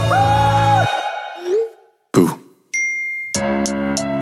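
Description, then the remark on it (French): A short electronic phone notification chime sounds among a few bright tonal bursts, clear, with brief gaps of silence between them and no talking. “sur l'écran des notifs d'une fille que j'ai ghostée.”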